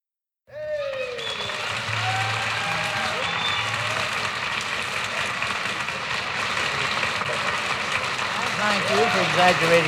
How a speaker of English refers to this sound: And thanks for that applause.